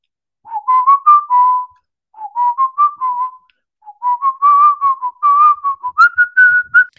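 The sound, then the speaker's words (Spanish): A clear, AI-generated whistled rendition of the well-known tune Bella Ciao in three phrases separated by short pauses, each a run of smooth, sustained notes rising and falling, with no voices. “O lo mismo, pero silbando.”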